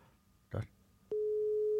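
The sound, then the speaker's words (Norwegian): After a brief muffled burst of sound, a steady, clear telephone ringback tone begins and holds loud and unbroken through the end, with the call going unanswered. “Nei, han blir ikke å ta den her heller.”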